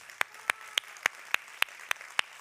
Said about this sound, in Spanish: Denle un aplauso al Señor hoy.